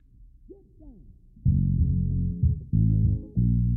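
A few faint swooping tones give way to a loud funk recording kicking in, with thick, punchy chords that cut out and slam back in a choppy rhythm.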